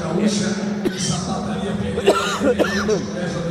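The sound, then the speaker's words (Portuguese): Several short coughs break out one after another, mixed with a bit of throaty, chuckling vocal sound and a low background hum. “Não de tossir, é de arrepiar.”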